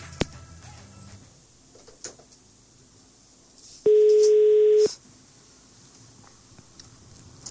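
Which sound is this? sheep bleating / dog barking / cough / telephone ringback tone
telephone ringback tone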